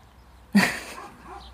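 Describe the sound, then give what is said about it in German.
A single dog bark rings out, a short sharp yelp that trails off quickly, somewhat muffled against a quiet background with no talking. “Jetzt bellt der Hund.”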